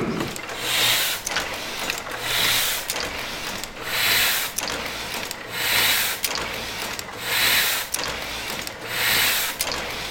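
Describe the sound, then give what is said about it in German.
A Heidelberg platen printing press in a museum factory in Pritzwalk, Germany, runs in a steady mechanical cycle, each stroke marked by a whooshing swell and sharp clacks, repeating roughly every one and a half seconds, fairly loud. “Was wir hier gehört haben, sind der 1000 PS Motor vom Funkerberg, der Heidelberger Tiegel in der Museumsfabrik Pritzwalk und ein Musterkrempel aus dem Textilmuseum Forst, jeweils in akustischen Detailaufnahmen.”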